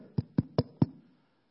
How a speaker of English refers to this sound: up to a little house and they go up to the door. They knock on the door.